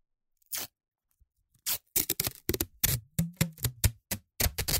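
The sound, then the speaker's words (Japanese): Masking tape being pulled off its roll to cut off a length of about one full wrap of the roll: a short rip, a pause, then a long stretch of quick, crackly tearing bursts, fairly loud, with no talking. “もう一周切り取る。”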